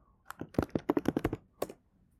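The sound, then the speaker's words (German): A quick burst of typing on a computer keyboard for a Google search, a dozen or so crisp key clicks in an uneven rapid rhythm, followed by a couple of final taps, with no one speaking. “Oder ich könnte es kurz googeln.”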